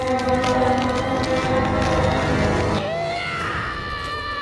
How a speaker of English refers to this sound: A lot of screaming in this movie.